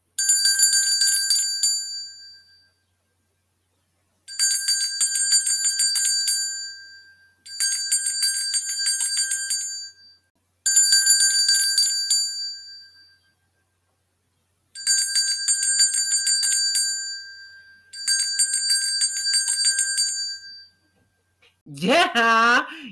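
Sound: bell ringing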